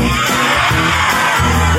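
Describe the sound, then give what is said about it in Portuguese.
A crowd of people yell together in a loud, sustained group roar, voices imitating a lion's growl for almost two seconds. “Ele fez leões que.”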